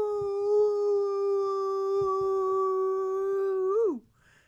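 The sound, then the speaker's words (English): A person imitates a wolf howl, holding one long, steady, tonal note for nearly four seconds before it bends down and cuts off, loud and close with no talking. “But I, I want to do an aroo”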